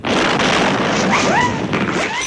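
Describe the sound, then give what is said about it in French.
A tuk-tuk engine roars harshly and backfires in rhythm in a loud, sustained burst of rough, blasting noise, with faint rising whistle-like tones threading through it. No one speaks. “Le moteur du tuk-tuk chante lui aussi. Il pétarade en rythme.”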